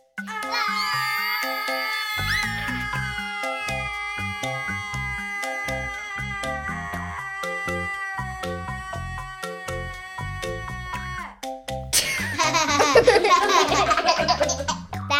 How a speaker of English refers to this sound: Imagine everyone on the boat screaming in excitement at once. Let's demonstrate what that might sound like. On my cue, everyone give me your best excited scream. Ready? Go!